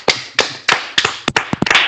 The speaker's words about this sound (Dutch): Zo, een waardevolle applaus. Wat een jongens.